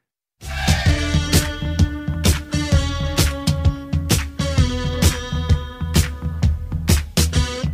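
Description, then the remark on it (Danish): A bright, punchy musical jingle with sharp rhythmic hits and sustained chords, loud and upfront, playing alone for several seconds with no voices. “Det her, det er lyden af et radiofonisk high five.”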